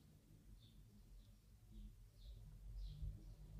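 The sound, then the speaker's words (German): Faint, distant birdsong: a handful of short high chirps repeating at a steady pace over a low, soft rumble of background noise, with no one talking. “Du hörst Vögel singen in der Ferne.”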